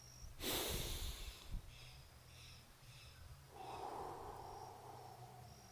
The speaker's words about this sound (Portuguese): Segunda respiração.